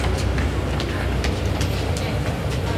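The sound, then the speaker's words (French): A Line 8 metro train rumbles loudly through a station, a steady low roar with faint rhythmic clatter of wheels over the rails, continuous throughout. “Le métro”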